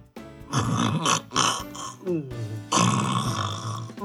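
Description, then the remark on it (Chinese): A voice imitates the thunderous snoring of the sleeping Gruffalo father in a told story, with rough, rumbling snorts and grunts, several harsh bursts over a few seconds, rising and falling in a guttural rasp. “一个风雪交加的夜晚，咕噜牛爸爸睡着了，呼噜打得震天响。”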